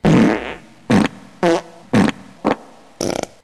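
A series of six loud, close fart sounds: one long buzzing blast followed by five short bursts in an uneven rhythm, with brief silences between them and no talking.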